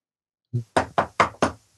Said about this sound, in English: Knock on the door now you're right. going to open that door. Right. And there's going to be a really angry couple of state troopers standing on the porch.